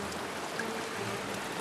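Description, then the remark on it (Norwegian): Water from a waterfall splashes down in a steady, unbroken rush, a dense hiss spread evenly across the whole clip at a constant moderate loudness, with no voices. “Da f- kunne jeg liksom følge med på vannet. At det plaska nedover.”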